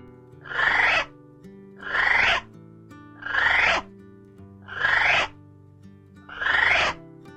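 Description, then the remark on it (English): A male kiwi calls at night beside a forest track, giving a series of five loud, shrill, rising whistles, evenly spaced about a second and a half apart, over a low steady hum, with no one speaking. “A couple of times I had a chorus of males calling out from either side of the track.”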